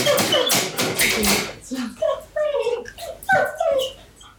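A dog whimpers in a series of short, high, wavering whines, following a brief burst of scratchy, rustling noise at the start.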